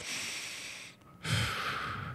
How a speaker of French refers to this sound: Prendre une respiration. On le fait pas assez souvent, tu sais.